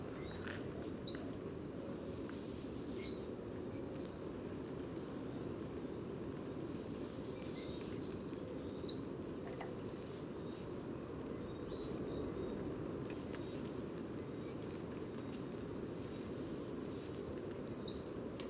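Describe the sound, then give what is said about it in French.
Yellow warbler song in Guadeloupe rings out three times, at the start, middle and end: bright, quick sweet phrases over a steady wash of distant sea surf and a constant high trill of crickets. “La Paruline jaune”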